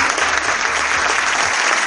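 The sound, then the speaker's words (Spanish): A crowd applauds steadily, a dense, even wash of many hands clapping, loud and sustained without pause for the whole moment, as the best documentary award is announced for the film Blanco Elefante. “Fuerte el aplauso.”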